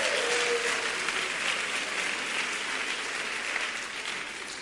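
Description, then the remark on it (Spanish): An audience applauds the Lord steadily, a dense wash of clapping that holds at an even, loud level throughout before easing slightly near the end. No one speaks over it. “Da un aplauso al Señor.”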